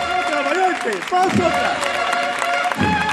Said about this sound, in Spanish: Y otra vez para afuera, a los sones del himno nacional. Y las palmas, la emoción, se desborda en la Macarena.